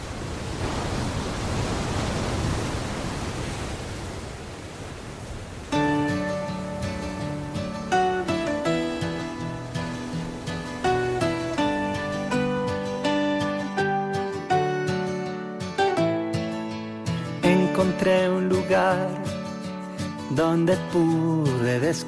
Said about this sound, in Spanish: Vamos a hacer una pequeña pausa musical y como os decía antes al principio del programa, escuchamos una canción